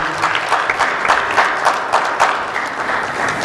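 An audience applauds steadily, a dense wash of many hands clapping at a fairly even loudness, with a few sharper individual claps standing out, and no voices.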